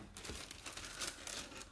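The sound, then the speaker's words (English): Paper wrapping crinkles and rustles continuously as newly bought items are unwrapped from their paper during an unboxing, with bright crackling bursts and no talking. “Oh my god, they're wrapped in paper. They're so fancy.”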